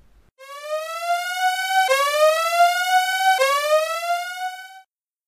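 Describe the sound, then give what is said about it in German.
A loud electronic siren rises in pitch three times in quick succession, each whoop restarting low and climbing, with no talking over it. “Machen wir einen Spoiler-Alarm rein.”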